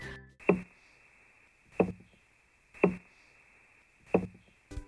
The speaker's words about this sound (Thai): และถ้ามันกำลังจะต่อสู้กันแล้วก็ ปลาปิรันย่าจะส่งเสียงต่ำๆซึ่งนักวิจัยเชื่อว่านี่เป็นเสียงที่ขู่คู่ต่อสู้ค่ะ